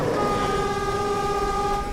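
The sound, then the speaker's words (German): A sugar train's horn sounds as the train passes through a village: one long, steady, loud blast, its layered tones held evenly throughout over a low rumbling background, with no one speaking. “Die letzte Sirene, die letzte Dorfdurchfahrt.”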